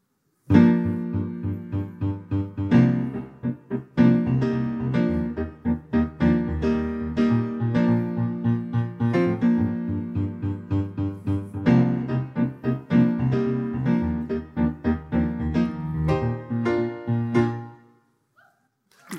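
A pop song, the first of two versions of the same song, plays for about eighteen seconds, with a steady beat, sustained harmonic instruments and a punchy, full mix that stops abruptly near the end. No one talks over it.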